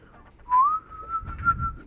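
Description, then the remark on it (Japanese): A single human whistle, rising briefly then holding a steady high tone for over a second, with faint low rumbling underneath and no speech. Someone is whistling to call a snake. “ちょっと怖いけど、口笛吹いて、ちょっとヘビも見てみたいなと思って、”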